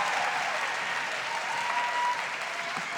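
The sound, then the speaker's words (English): Steady, dense audience applause for a youth performance fills the whole three seconds, a continuous wash of many hands clapping at an even, fairly loud level with no voices standing out. “I think maybe we should get one more round of applause for that beautiful performance.”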